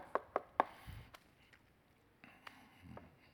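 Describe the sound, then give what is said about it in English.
Three quick, sharp knocks in a steady row, tapped out fairly loud to imitate knocking on the front door of a house, followed by a few faint, softer thumps and quiet. “Nick goes to the front door and he knocks on the door.”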